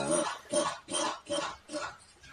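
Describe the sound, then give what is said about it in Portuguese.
A squeaky rubber duck toy belonging to the pet Bob being squeezed over and over, about six loud, honking squeaks in a steady rhythm, with no talking. “Ai, meu Deus do céu, pisei nos bichos do Bob. Olha, isso, isso aqui é um bicho que se dá. Olha o barulho desse pato.”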